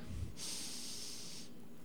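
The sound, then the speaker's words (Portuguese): A single long, deep breath drawn in through the nose, filling the chest, a steady airy hiss lasting over a second, fairly quiet, with no talking. “Respira aí. Enche o peito, vai.”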